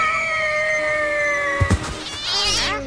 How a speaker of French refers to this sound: Je t'ai déjà dit mille fois de pas faire peur au chat, il fait des percussions.